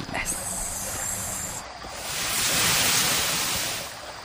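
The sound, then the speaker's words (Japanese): A loud, rushing hiss of water poured onto hot sauna stones atop an electric sauna stove in a Finnish-style sauna (löyly), producing steam, swelling into a broad steamy roar midway before slowly easing off, with no talking. “まあロウリュっていうのは、あのサウナストーブの上にある石たまにあると思うけどそのフィンランド式サウナである一つの種類フィンランド式サウナっていうこの電気ストーブの上にあるサウナストーンにこうアロマ水とかこう水をかけることによって水蒸気を発生させる”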